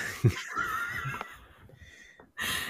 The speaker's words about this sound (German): Okay, deine Hunde haben wir definitiv on tape.